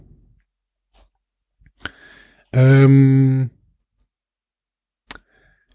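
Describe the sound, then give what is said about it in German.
A computer mouse clicks twice, sharp, a few seconds apart, with a person's drawn-out hesitant murmur between the clicks, as someone clicks on the entry "Kommando". “Also ich klicke mal auf Kommando.”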